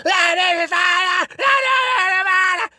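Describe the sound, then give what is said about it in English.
A voice imitates angry punk-style shouting with no tune: two loud, strained, sustained yells, with a brief gasp between them and no other sounds. “just shouting, like no tune or attempt at tune and so angry, like shove pointing a finger, like really, you know, like you saw punks, like just shouting and pointing and gesticulating, and they were doing this, like,”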